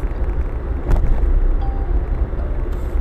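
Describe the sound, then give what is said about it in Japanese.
A steady low rumble of a car driving, heard from inside the cabin, with constant road and engine noise filling the low end and a brief bump or rattle partway through. “車走ってるところなんですけどね”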